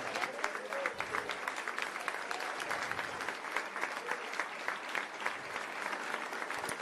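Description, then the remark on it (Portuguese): A standing church audience claps for Jesus for several seconds, a dense, continuous patter of many hands with crisp individual claps standing out, moderately loud and without a clear rhythm. “Aplaude Jesus, ele merece toda a honra e toda a glória.”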